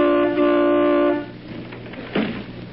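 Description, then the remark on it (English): A car horn is tooted from a car in a house's driveway, blaring in one long, steady, musical honk lasting about a second, then cutting off, leaving quieter background noise with a brief rustle. “Hey, who's that honking in C sharp?”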